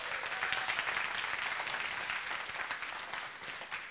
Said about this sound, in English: why don't you let him know you love him? Let him know you did a great job. He's in the back there. Clap for him.